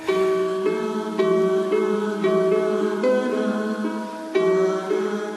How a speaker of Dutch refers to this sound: Maar hoe klonk de muziek van Egyptenaren? Want ik heb hier een fragment op online gevonden eh, met veel harp en gezang.